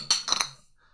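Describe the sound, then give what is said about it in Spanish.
Glasses clink together in a toast, two quick bright chimes, followed by a faint fading ring and then near silence. “Salud, último salud. Salud. Eh, que se escuche.”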